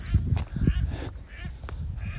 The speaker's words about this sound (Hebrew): לא ברווזים, הקפצתי אותם, סורי גייס.